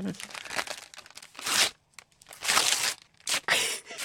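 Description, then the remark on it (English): Paper crinkling and tearing in bursts, loud, with brief pauses between rustles as the wrapping paper of a gift is pulled open and crumpled. “So that's like unwrapping a gift.”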